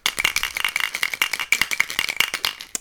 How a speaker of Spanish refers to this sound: Es un bote de los típicos que te dan para hacer las muestras de pipi, o de los que te daban antes, con una tapa roja, y dentro tres tapones de orejas enganchados, juntos, que hace este ruido.